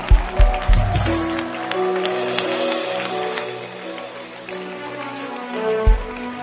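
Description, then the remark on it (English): A crowd claps continuously in a dense, steady patter of overlapping hand claps, with sustained musical tones running underneath and a few low thumps near the start and end. “Don't stop clapping.”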